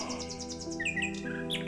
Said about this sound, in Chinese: 啊，这美丽的声音是什么？ 是夜莺，是真正的夜莺。 啊，小夜莺，不要停，请一直唱下去吧。